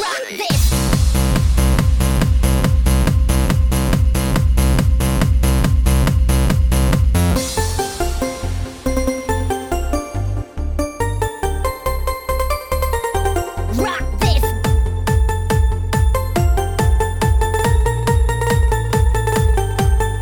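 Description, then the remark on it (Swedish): An electronic music track made in FL Studio, with a steady, pulsing beat and bright synth melodies, loud and upfront, shifting to a sparser section midway before the driving rhythm returns. No voices. “jag har ju hållit på med någonting som heter FL Studio ganska länge.”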